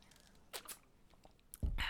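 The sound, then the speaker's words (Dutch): A quiet sip of water, with a few soft clicks and handling noises followed by a low, muffled gulp. No one speaks. “even een slokje water.”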